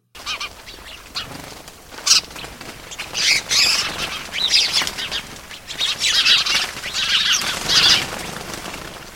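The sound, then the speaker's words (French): Shrill, harsh cries of captive birds trying to free themselves from their bonds squawk over and over in overlapping bursts, loud, with a rustle like flapping wings between them and no one speaking. “Les oiseaux poussent des cris stridents qui fondraient une pierre en deux.”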